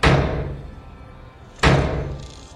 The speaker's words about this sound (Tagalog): Maya-maya nakarinig uli ako ng ingay, mga kalabugan, pero ngayon ay sinasabayan na ito ng hiyaw